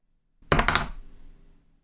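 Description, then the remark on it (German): A die is rolled again, clattering across a tabletop in a quick burst of four or five sharp clicks and knocks, then settling into a brief fading rattle. Nobody speaks. “Dann würde ich den Würfel nochmal rollen lassen.”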